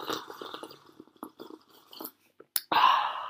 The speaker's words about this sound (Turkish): Bakalım bir çayımızdan bir yudum alalım. Gerçi bir yudum aldık zaten. İkinci bir yudum alalım.